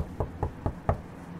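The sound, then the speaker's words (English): Four firm knocks on the wooden front door of a brownstone house in Harlem, evenly spaced in a quick rhythm, fairly loud, with quiet room tone and no voices. “Sprung up them brownstone steps two at a time and knocked.”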